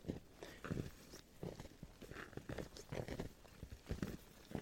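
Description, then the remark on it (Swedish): Heavy, crunching footsteps plod through deep snow in a forest, slow and uneven, with soft thuds and scraping as each foot sinks and pulls free. “Pulsa i Snö”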